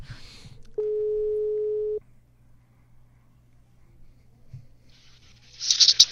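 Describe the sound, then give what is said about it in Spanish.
A single telephone ringback tone sounds as a call is placed for an interview on the programme Teléfono Rojo, a steady electronic buzz lasting about a second, followed by quiet line hum and a brief burst of hissy noise at the end. “Vamos a ver si nos contesta la primera.”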